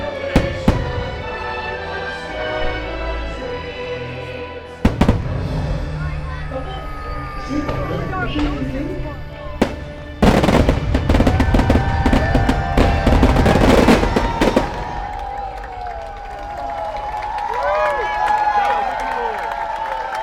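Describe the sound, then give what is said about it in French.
Fireworks burst at 10 pm in front of the Disneyland castle, in warm, rainy weather. Sharp booms come a few spaced out at first, then a dense rapid volley of cracks and bangs, over a steady crowd murmur with voices and cheering. “Il est 22h et il va y avoir bientôt le feu d'artifice.”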